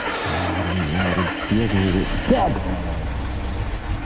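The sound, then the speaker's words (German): A car engine struggles to start, sputtering and whining with a wavering, uneven pitch for a couple of seconds before it settles into a rough, steady rumble. “Will er wieder nicht anspringen?”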